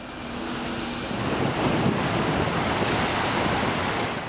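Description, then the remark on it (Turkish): Rough, stormy sea waves surge and crash continuously while strong wind buffets the microphone, a loud, dense roar filling the whole clip with no voices. “Tüm gün kara bulutlarla, aralıklı yağışlarla, kuvvetli rüzgarlarla geçti.”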